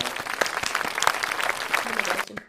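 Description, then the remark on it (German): A burst of applause inserted as an effect, many hands clapping in a dense, crackling patter that holds steady for a couple of seconds before trailing off, with a faint voice or two mixed in. “Dürfen wir dafür einen Applaus einfügen?”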